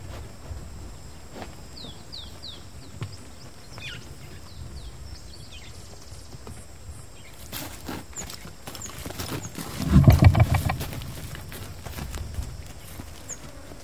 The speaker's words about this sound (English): I have recordings that uh, you can hear the baboon bumping into the microphone and just not even minding it.